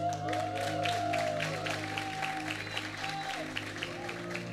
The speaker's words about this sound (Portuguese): Uma salva de palmas aí para a galera aí, ó.